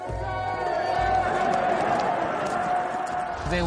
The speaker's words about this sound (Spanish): La gente le lanzaba arroz, pétalos, flores. Le vitoreaban y gritaban alabando su valor. Estaban muy felices.